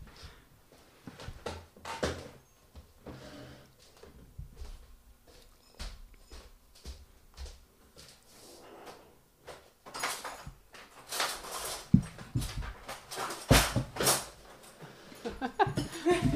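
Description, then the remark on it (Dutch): A kitchen drawer bin is taken out of the kitchen and set down: a run of sliding scrapes, knocks and rattling clunks, growing louder toward the end, with faint voices and a little laughter in the background. “dus ik ga proberen om de bak uit mijn keuken te halen en hem hier neer te leggen.”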